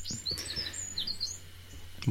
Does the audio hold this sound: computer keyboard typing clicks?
no